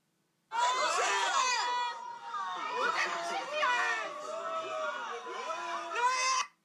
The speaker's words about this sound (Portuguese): Enfim, isto é malta a gritar